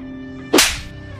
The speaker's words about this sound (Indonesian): Sontak, Mai pun menampar Bambang dengan keras dan spontan menangis.